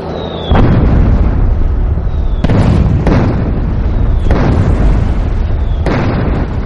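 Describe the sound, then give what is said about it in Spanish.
Loud explosions go off one after another while a truck advances, about five booms at uneven intervals over a constant roaring rumble, a few of them preceded by a brief high whistle. “Entre explosiones constantes, un camión avanza.”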